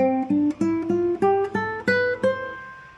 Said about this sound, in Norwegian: Men for å demonstrere igjen Lydisk skala er jo også en slags durskala, men fjerde trinn er da forhøynet, så i stedet for Vanlig dur, som høres sånn ut